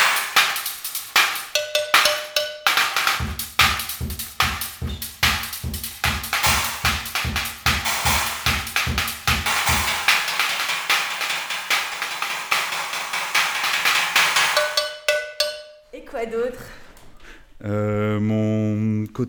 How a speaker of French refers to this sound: Et ça c'est quoi Une cloche de vache.